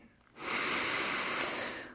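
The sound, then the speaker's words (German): A father takes a single deep inhalation, an airy, breathy rush that swells quickly and holds for over a second before easing off. No one speaks. “Papa atmet tief ein”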